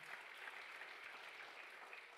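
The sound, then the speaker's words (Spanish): An audience breaks into loud applause, a dense, steady wash of many hands clapping that holds at an even level for the whole stretch, with no voices on top. “Dele otro aplauso fuerte a papá.”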